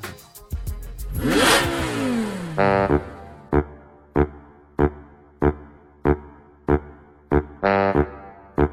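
An electric Formula E race car whirs past with a high-pitched whine that drops in pitch as it goes by, followed by a steady series of short, evenly spaced tonal pulses.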